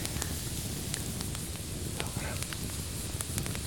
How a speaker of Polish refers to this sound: Patrz, nagle dwóch facetów sobie przypomniało, że można posiedzieć o takiej porze zimnej przy ognisku w ciemnościach.